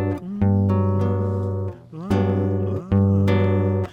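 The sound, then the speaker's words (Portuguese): A frevo song written for the debut of a puppet plays loudly, its instrumental passage built from bright, sustained chords struck with sharp rhythmic accents every few beats; no voices are heard. “E eu fiz uma canção quando a gente foi estrear essa boneca, que era é uma homenagem para minha mãe sobre Sim.”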